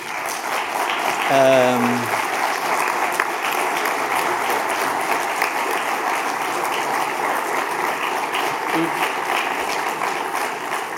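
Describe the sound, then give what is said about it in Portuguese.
Sustained audience applause for Sérgio Sousa Pinto at an MEL panel fills the whole stretch, a dense, steady wash of many hands clapping, with a brief voice-like tone rising near the start. “E essa nota especial, e que eu pedi uma salva de palmas, é ao Sérgio Sousa Pinto.”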